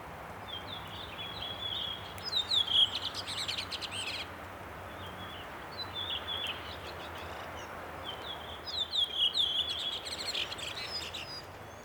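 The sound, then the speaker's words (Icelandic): Birds sing with high, bright chirps and trills in two main bursts, with quieter twittering between them, over a steady, soft background hiss, heard from a balcony at night under the midnight sun. No one speaks. “Aldrei þessu vant þá var ég andvaka í nótt fór út á svalir og hlustað á fugglana í miðnættur sólinni.”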